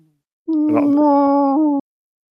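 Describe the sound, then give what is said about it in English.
A voice imitates the call of a Kindori space whale with one long, sustained moaning tone that holds a steady pitch for over a second, loud, then cuts off abruptly. “They, they make space whale noises.”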